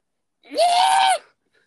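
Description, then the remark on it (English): A person imitates a fox's mating scream: a single loud, harsh, drawn-out shriek lasting under a second, rising sharply then holding steady before cutting off, with silence around it. “Foxes having sex is one of the most like blood curdling yeah. sounds that you will ever hear, especially when yeah, you yeah, don't know what it is and it's 3 a.m.”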